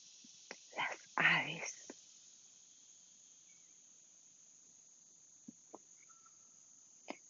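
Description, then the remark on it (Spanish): Morning ambience in a park with many trees, with a steady, high-pitched insect drone running throughout, a couple of brief breathy, whisper-like bursts near the start, and a few faint scattered clicks. “Les saludo esta mañana desde un lugar favorito como lo es el parque donde hay muchos árboles, donde solo se escucha”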